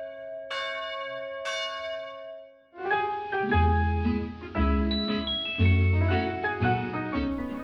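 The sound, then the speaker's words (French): Village church bells ringing the Angelus: two single resonant strokes with long ringing decay, then several bells join in a full, overlapping peal that swells and continues, loud, with no voices. “Dans la région, les villages ont tous une église dont les cloches sonnent l'Angélus matin, midi et soir.”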